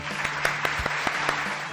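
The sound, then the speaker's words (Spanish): A burst of steady, dense applause for the program's new female host, many hands clapping together in a broad crackling wash with a few sharper claps standing out, lasting under two seconds with no voices over it. “Así que le vamos a dar un muy fuerte aplauso a nuestra nueva conductora, a la señorita o señora”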